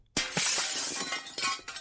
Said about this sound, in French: Briser un miroir. Briser signifie casser.